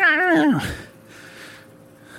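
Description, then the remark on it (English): A single loud, warbling yowl like a cat's wails for about half a second, its pitch wavering and then dropping, before fading into quiet background hiss. “The guy could call a street cat fight.”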